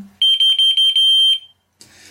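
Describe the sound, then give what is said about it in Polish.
A pager's electronic alert tone, one of four distinct signals used to tell which receiver is being activated; its volume cannot be adjusted: a loud, high-pitched steady beep pulsing in a quick rapid-fire pattern for over a second, then a brief burst of noise after a pause. “Jak więc widzimy, każdy z sygnałów jest odmienny i możemy w ten sposób odróżniać, który odbiornik aktywujemy, czy w stronę którego odbiornika mamy się zwrócić.”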